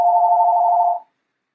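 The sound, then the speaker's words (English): A phone rings with one steady electronic tone, loud, lasting about a second before cutting off into silence. No one speaks. “Oh, excuse me, I have a phone. Uh, let me hang up.”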